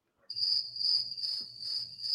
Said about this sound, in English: Yeah, you know, speaking of crickets,